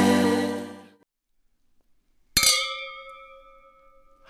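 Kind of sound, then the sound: household object, glasses clinking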